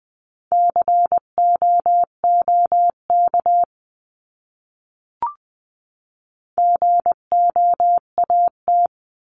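Morse code practice beeps sending words at 18-20 words per minute in a steady mid-pitched tone, keyed into quick dots and dashes in two runs separated by a pause, with a single faint click in the gap.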